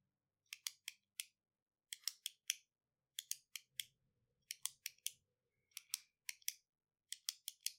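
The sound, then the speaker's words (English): Crisp, sharp clicks from a pen, imitating a faint clicking sound, arrive in quick bursts of three or four, repeating steadily with short pauses between groups, fairly quiet, with a faint low murmur underneath. “He didn't say it sounded like a pin, but that was like the best thing I could equate to it.”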